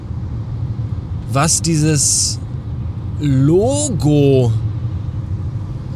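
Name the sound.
car driving on road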